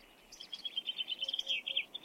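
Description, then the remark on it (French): A male bluethroat perched at the top of a reed sings as loudly as it can, a rapid, continuous run of bright, high chirps and trills, fairly clear, with no voices over it. “C'est un mâle gorge bleue à miroir qui donne de la voix.”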